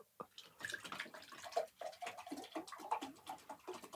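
Fontesa bottled water pours steadily from a bottle, a gurgling, splashing stream with irregular glugs over about four seconds, moderately loud, with no voices.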